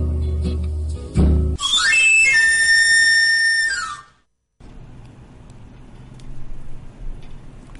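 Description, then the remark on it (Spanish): A knife sharpener's whistle plays a quick rising run of high, bright pan-pipe notes, holds steady for a couple of seconds, then slides back down. A short thump comes before it, and low background noise follows. “El afilador.”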